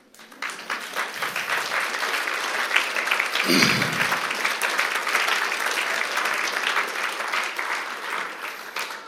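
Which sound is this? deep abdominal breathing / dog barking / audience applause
audience applause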